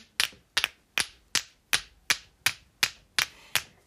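Two small wooden figures held in the hand knock against a hard surface about ten times in a steady, even rhythm, each tap a crisp click with a short ring-off and no voices.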